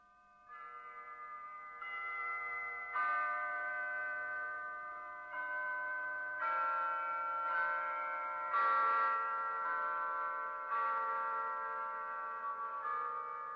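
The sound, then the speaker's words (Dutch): Church bells ring out in an irregular sequence of strikes, each tone sustaining and overlapping the next into a steady, resonant wash, fairly loud and clear with no voices. “en ik heb de klokken van een kerk horen luiden.”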